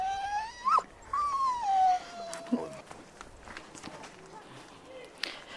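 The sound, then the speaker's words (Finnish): A wolfdog moves around in Kouvola, its paws scuffing and tapping irregularly, while high, drawn-out whines rise and fall over the first two seconds. “Koirasusiin tutustumassa Kouvolassa”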